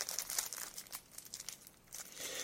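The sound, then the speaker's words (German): Quiet crinkling of a plastic bag as someone pulls four mini screws out of it one at a time, with irregular rustling bursts and small crackles over a couple of seconds, no voices. “Ich pull sie mal einzeln aus der Tüte raus.”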